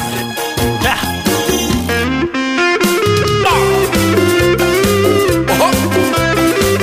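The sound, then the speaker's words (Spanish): A loud, gritty electric guitar riff with heavy distortion drives a full rock band, chugging steadily over bass and drums for several seconds with no singing. “Qué guitarrita.”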